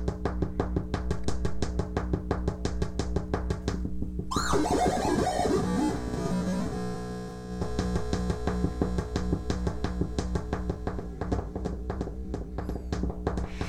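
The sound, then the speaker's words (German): A buzzy electronic tone from a touch-controlled tone generator salvaged from an old Commodore computer, played by touching three rods, pulses in a fast, steady rhythm, briefly dissolving into a smeared, detuned swoop of harsh noise before the choppy pulsing returns, loud, with no voices. “Äh, einen Tongenerator, der ist übrigens aus dem alten Commodore-Rechner rausgebaut, also ist auch ein bisschen recycelte äh, Klangerzeuger äh, sozusagen.”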